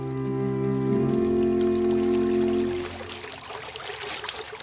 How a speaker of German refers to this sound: Aus einem sprudelnden Brunnen im Vorraum plätschert Wasser kaskadenförmig zum Vorplatz hinunter.